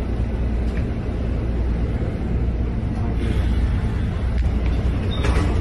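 A steady low engine rumble and road drone fill the inside of a moving bus, constant and fairly loud throughout, with faint rattles and a brief hiss near the end.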